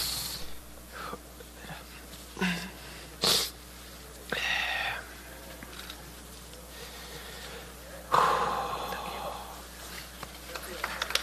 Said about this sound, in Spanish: Tranquilo, le dice un compañero, tranquilo. él está llorando, sollozando.